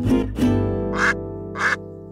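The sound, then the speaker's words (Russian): Four loud, nasal honks from geese, a lower pair followed by two higher, brassier calls spaced about half a second apart, with no voices or other sounds around them. “Ох уж эти, ох уж эти гуси.”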